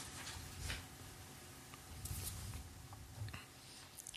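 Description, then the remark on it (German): Paper rustling as pages of an old, dusty notebook are turned, with several soft, brushing swishes spread across a few seconds, quiet, with no talking. “Ja, er blättert gerade, er muss gerade den Staub abpusten.”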